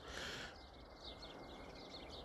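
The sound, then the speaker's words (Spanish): Faint chirps from small birds repeat in quick little bursts over a soft background hiss, with no voices, outdoors at dawn as the sun rises. “No sé, de verdad hoy me levantaba hace un día estupendo, o sea, un sol curioso está amaneciendo, se oyen los pajaritos, que no sé si los oís.”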